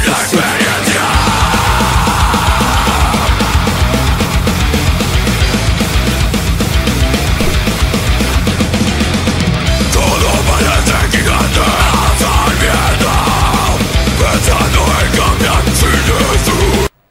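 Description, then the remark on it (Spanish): A loud, dense heavy metal track with harsh screamed vocals over pounding drums and distorted guitars, playing continuously at full intensity before cutting off abruptly at the end. “Ay, ¿por qué, ¿por qué gritan todo? ¿Por qué gritan, ¿Por es esta música del diablo.”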